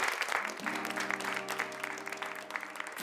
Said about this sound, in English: Man, we got to give ourselves a round of applause for that, you know?